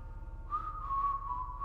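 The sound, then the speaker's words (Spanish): A thin, eerie whistle rises in after a brief pause and holds one steady, wavering pitch, fairly quiet, over a low background hum with no voices. It comes from just outside a window. “el silbido se detuvo.”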